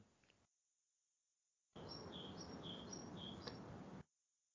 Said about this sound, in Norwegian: Jeg måtte bare høre litt på det deilige fuglekvitteret eh, til Erlend